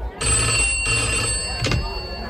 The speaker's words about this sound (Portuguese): O delegado Acerola está na delegacia quando de repente o telefone toca.